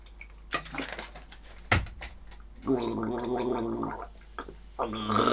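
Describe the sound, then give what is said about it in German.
Someone gargles a sip of water as an exercise for pronouncing the German R, a low, voiced bubbling rattle held for about a second, with scattered mouth sounds and a sharp click before it and another gargle starting at the end. “Probiert es aus mit einem Schluck Wasser.”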